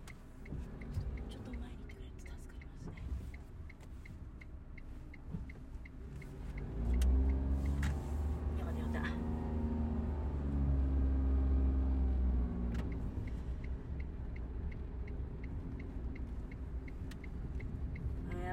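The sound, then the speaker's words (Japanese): Steady low rumble of heavy car traffic during a Monday morning commute, with cars queuing at an intersection, growing louder for several seconds midway, with a faint regular ticking and some muffled talk in the background. “おとといか土曜日に通勤した時は車が少なくていいなと思ったけど今日はやはり車が多くて交差点でね車の列に並ばなきゃいけないっていうようなことがありますね”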